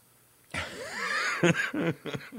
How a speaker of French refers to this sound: Quand tu tousses, tu tombes à mon niveau, c'est ça?